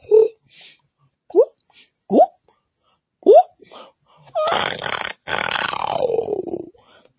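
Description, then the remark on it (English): Beatboxing-style vocal effects: four short, rising whooping blips, then a long, raspy, breathy sound that sweeps downward, with a brief break in the middle. “I started beatboxing five months ago, but I already come up with so many crazy sounds like, ooh, ooh, ooh, ooh.”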